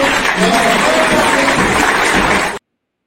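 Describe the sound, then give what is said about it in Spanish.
A crowd applauds loudly and steadily at a political event for about two and a half seconds, dense clapping filling the space before it cuts off abruptly. “Ah, perdón, perdón, perdón, ya estaba yo aplaudiendo ahí también con Alito”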